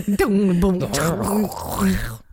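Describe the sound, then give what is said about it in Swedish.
A voice imitates the spooky gong-like sound a tray table made, with a low, wavering, drawn-out hum that bends up and down in pitch. It is fairly loud, with no words, and fades after a couple of seconds. “Du, Både du och jag gjorde riktigt dåliga imitationer av hur det, hur ja. det där lät.”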